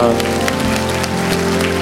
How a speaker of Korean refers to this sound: 영생을 주시는 하나님 앞에 영광의 박수 올려드립니다.